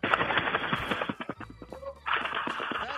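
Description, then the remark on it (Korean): A caller in a voice-impression contest imitates a flock of pigeons taking off: rapid, breathy fluttering bursts like beating wings, then a short lull of scattered clicks, then another loud flurry of flapping. “그 비둘기 때 날아가는 소리를 간단하게 한번 해보겠요 비둘기 때로 날아가는 소리입니다.”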